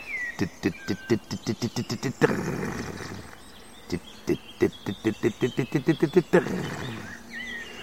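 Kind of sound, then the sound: bird, corn bunting song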